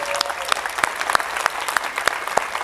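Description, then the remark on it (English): A room full of people applauding in the morning to honor someone, steady dense clapping with a few sharper claps standing out, moderately loud and continuous throughout. “Those of you that know Ellen, you know why you're clapping already”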